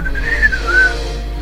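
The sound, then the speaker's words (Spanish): A person whistles a short birdlike trill, a high, smooth tone that rises and dips in two gliding phrases over about a second, then fades, with a low steady hum underneath and no talking. “Te acompañaré a donde vayas y te alegraré el camino con mi trino.”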